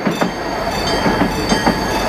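A passenger train runs steadily along the rails, a continuous rumble with regular rhythmic clacks of wheels over track joints roughly every half second, no voices.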